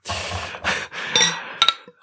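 Grünbacher beer poured into a glass in a few short, gushing, fizzy bursts, followed by a couple of bright, ringing glass clinks. No one speaks.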